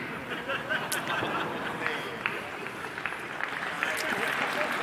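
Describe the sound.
A crowd claps steadily for several seconds, a dense patter of many hands with a murmur of voices and chatter mixed underneath, holding at an even, fairly loud level throughout.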